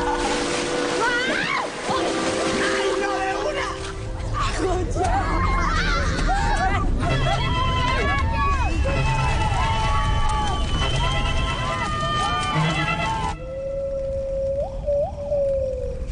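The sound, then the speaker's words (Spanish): Dense, layered film-trailer soundtrack plays steadily in the background of a live radio broadcast, with swooping, wailing tones, rumbling low end and muffled crowd-like voices, ending abruptly in a thinner sustained hum. “lo que está escuchando usted de fondo a las 11 de la mañana 38 minutos es el tráiler de la película Monos”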